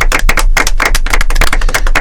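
A crowd bursts into loud, sustained applause, many hands clapping in a dense, continuous patter that stays steady throughout, with no voices audible.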